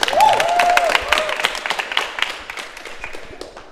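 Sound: applause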